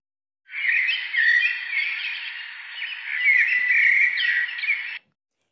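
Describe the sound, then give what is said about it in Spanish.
Small birds chirp busily and continuously for several seconds in a colorful tree in a garden, a dense, high twittering chorus of overlapping calls, steady in volume, with no voices. “Estaba lleno de pajaritos.”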